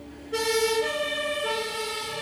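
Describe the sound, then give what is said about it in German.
A fire engine siren starts abruptly and wails loudly, its tone stepping between two pitches in a steady alternating pattern, with no voices over it. “Feuerwehr. Das ist wie, wie ein eingebauter Effekt.”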